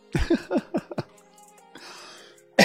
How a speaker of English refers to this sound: Excuse me.